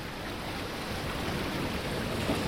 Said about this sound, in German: Der Sand, das Meer.